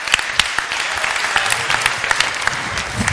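Steady applause from a group, a dense patter of overlapping claps with sharp individual hand slaps standing out, sustained at an even, fairly loud level throughout with no talking.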